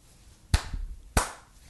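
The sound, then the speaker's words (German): Two sharp hand claps, roughly half a second apart, crisp and fairly loud, with nothing else but faint background hiss between them. “Auch sehen Applaus von mir für dich.”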